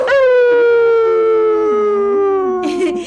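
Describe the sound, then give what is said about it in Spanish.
Someone imitates a coyote howl: one long, loud, sustained wail that slides slowly downward in pitch for about three seconds, ending with a brief breathy rustle. “¿Cómo huyan los coyotes?”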